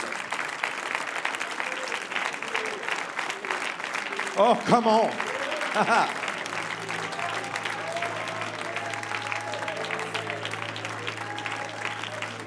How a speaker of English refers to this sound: Praise God. Now let's give the Lord worship and a hand clap